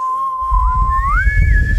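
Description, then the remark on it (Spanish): A person whistles a short call imitating the alien from the film Mi amigo Mac (Mac and Me), the whistle it used to call its people: a steady tone that slides upward to a higher held pitch, clear over a low rumbling background. “¿Te acuerdas que, silbaba para llamar a su gente?”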